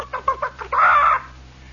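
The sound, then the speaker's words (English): A voice imitates a chicken over a two-way PA intercom system in barracks: four quick, choppy clucks followed by a longer, drawn-out squawking note, clear with a low hum in the background. “the sound of the eternal chicken, which uh, is a kind of an eternal sound in the RVC, does not refer to eggs, friends.”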